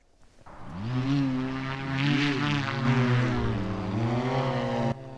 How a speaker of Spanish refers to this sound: Escuchan el motor de un artefacto volador llamado Blackfly, el cual puede despegar sin una pista de despegue, muy similar precisamente al despegue que hacen los helicópteros. El artefacto es fabricado por la empresa Pivotal